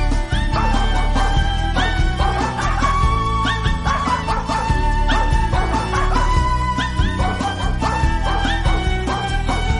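A dog barks and yips again and again in quick, uneven bursts, fairly loud, over a dense, steady layer of sustained tonal sound that runs the whole time.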